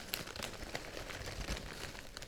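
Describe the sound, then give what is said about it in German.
A crinkly chip bag is slowly tilted and shaken a little to pour the chips into a vessel, giving a steady stream of crisp crackling and rustling with small sharp pops, no voices over it. “Beuge langsam die Tüte, ein bisschen schütteln.”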